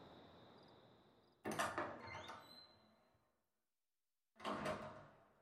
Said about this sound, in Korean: 문이 열리고 닫혔다.